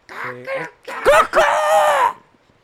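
A rooster crows once, close and loud, a strained multi-part cock-a-doodle-doo that rises, holds, then trails off into quiet.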